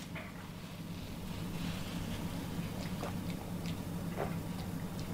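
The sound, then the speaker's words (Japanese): Someone gulps down a fizzy yuzu drink mixed with carbonated water, a few distinct swallowing sounds spaced out over a steady low background hum, with no talking. “ごくごくああうまいうまいですよ、はい、このぐらい濃くてもいいな”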